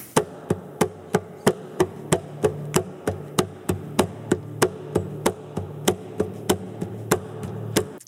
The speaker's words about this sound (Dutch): Paul tikt eigenlijk op zijn gitaar. Hij, klapt eigenlijk op die, op die gitaarbody.